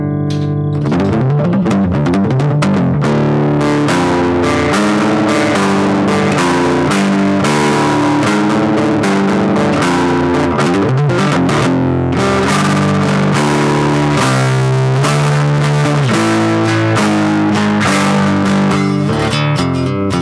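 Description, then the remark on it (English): An acoustic-electric guitar played through heavy distortion, loud, with thick sustained chords and riffs ringing continuously for about twenty seconds, no voices. “throw some heavy distortion on it.”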